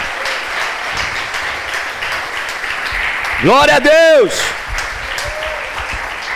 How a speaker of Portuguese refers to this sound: Se você crê nisso, aplauda bem forte a ele. Aleluia!